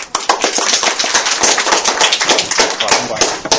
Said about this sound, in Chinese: 行，那么我们废话不多说，我们开始吧，大家掌声有请。